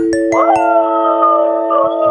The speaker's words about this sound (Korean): 이거 뭐, 뭐 어디 여우 늑대 소리인데?